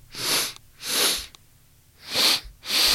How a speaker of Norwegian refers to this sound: Og måten vi kan gjøre det på ganske effektivt, at vi kan ta et dobbelt innpust gjennom nesen. Okay. For at det gjør at vi fyller opp hele lungene. Det høres sånn her ut